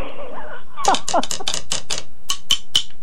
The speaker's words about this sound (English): I'm sitting here with my drumsticks.